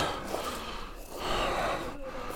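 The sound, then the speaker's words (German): Breathy, raspy coughing, a few rough bursts running into one another with wheezy breaths in between, with no talking, during an ordinary evening gathering in Tuscany, Italy, while wine is poured and beer is drunk. “Wein eingegossen, Bier getrunken und gehustet, wie ihr hört.”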